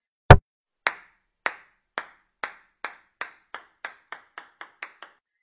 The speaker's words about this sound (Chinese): 你只要在桌上放个东西，比如乒乓球，然后再拍一下桌子